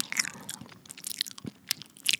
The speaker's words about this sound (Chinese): 蓝蓝蓝听完之后，兴奋地把红彤彤的活力果实一口塞到嘴里。她边走边嚼，